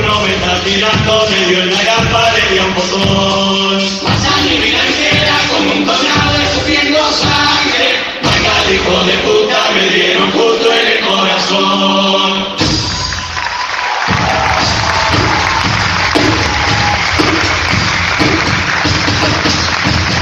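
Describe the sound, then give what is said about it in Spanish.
Singing with instrumental backing from a murga performance gives way, about halfway through, to a loud, sustained ovation of applause and cheering from a large audience, continuing steadily to the end. “Y la ovación del público para este cumple dedicado a la violencia”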